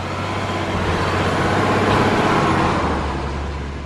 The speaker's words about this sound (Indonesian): Ah, saat itu lewatlah sebuah mobil itu milik Pak Rano, pemilik peternakan di dekat situ. Di belakang mobilnya ada banyak ikatan jerami.